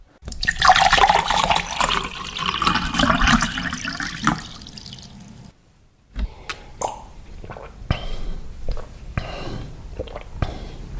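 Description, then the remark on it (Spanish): Water pours steadily into a glass for about five seconds, then cuts off, followed by a few scattered clinks and knocks as the glass is handled. “A ver, niño, tráeme agua.”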